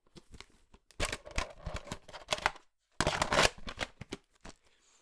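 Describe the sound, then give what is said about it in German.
Plastic clattering and clicking as a VHS cassette is handled in a video recorder, with rattly bursts, a brief pause, then a louder mechanical clunk and whirring rustle. “Es ist ähnlich wie mit diesem Trägermedium eines anderen Mediums, das wir sehr gerne mögen. Achtung.”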